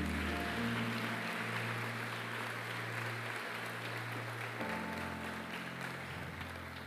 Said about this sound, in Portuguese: Você pode aplaudir ao Senhor em nome de Jesus?